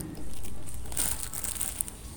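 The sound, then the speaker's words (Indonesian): A used plastic drink bottle is crumpled, a dense run of crackling, crinkling snaps lasting about two seconds with no one speaking. “Eh, kok kamu buang sampah sembarangan sih? Apalagi ini sampah plastik bekas minuman”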